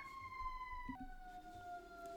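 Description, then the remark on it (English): An emergency vehicle siren wails in the distance, its tone holding high and then dropping to a lower pitch, steady and fairly faint over low rumbling background noise. “There's a siren going on in the background.”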